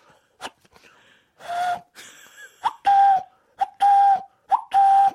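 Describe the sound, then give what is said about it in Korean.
A person imitates a cuckoo call, one of the sounds made during a wedding congratulatory song, with voiced whistling hoots, four or five breathy calls in an uneven rhythm with short gaps between them, loud. “양세형이 뻐꾸기 소리를 내가지고 아이고.”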